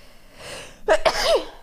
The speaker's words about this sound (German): Oh, ich muss, glaube ich, niesen.